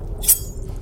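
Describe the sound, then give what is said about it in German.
A single drop of blood runs down a finger and falls into a small vial with a brief, bright, high-pitched plink, quick, over a faint low background hum. “Und ein Tropfen Blut läuft an deinem Finger entlang und genau in eine Firole hinein.”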